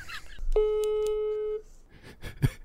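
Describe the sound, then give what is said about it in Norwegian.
A telephone call tone sounds once as a call is placed, a steady mid-pitched buzz lasting about a second, followed by faint murmuring and rustling as the line goes quiet. “Jeg kan jo bare slå på tråden her.”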